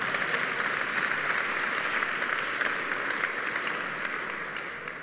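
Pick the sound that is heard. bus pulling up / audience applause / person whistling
audience applause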